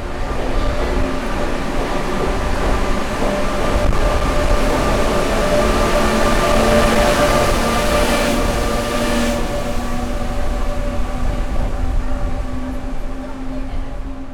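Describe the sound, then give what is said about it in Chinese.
A train rushes past while speeding up, in a loud, steady roar of wind-like noise, with sustained metallic whining tones running through it and a brief swell of hiss midway. “会听到风声有点大哦，是因为车子在经过。好，真的要越开越快了。”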